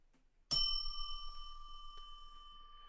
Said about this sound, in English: All right, ding the bell. Let's do this.